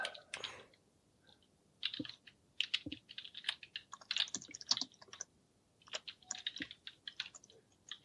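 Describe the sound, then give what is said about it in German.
Fast, uneven keyboard typing as people write tweets, bursts of crisp key clicks separated by short pauses, with no voices. “Kommt das auch noch in die Folge, wie wir jetzt alle ja, die, Tweet, die, Tweets tippen?”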